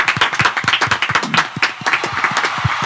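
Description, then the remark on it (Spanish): A burst of applause, many quick overlapping hand claps at a steady, dense rhythm, moderately loud and sustained for the whole stretch with no voices on top. “Fue el aniversario y un aplauso para todos.”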